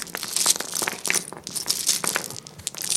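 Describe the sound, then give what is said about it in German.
Small pieces of black coral poured out in a steady, dense clatter of bright clicks and rattles that keeps up for about three seconds, with no voices; black coral is much softer and lighter than red coral and sounds warmer in tone. “Wenn wir das Ganze mal mit schwarzer Koralle machen”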